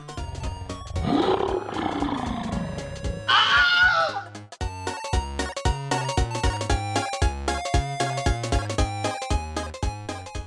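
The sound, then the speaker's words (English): A loud lion roar with snarling growls, a lion attack, lasts a few seconds, then gives way to steady, rhythmic percussive music with repeated heavy beats. “After that, especially after the word of the lion attack spread throughout the company, the ambitious prophet did not have any trouble finding someone to do his bidding.”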